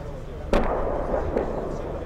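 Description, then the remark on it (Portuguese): A sharp explosion booms once as a Turkish aircraft's strike hits a military vehicle in Syria, followed by a rumbling tail and a second, fainter blast a moment later, set against a steady low background roar. “O alvo é um veículo militar que está na Síria. O disparo é certeiro.”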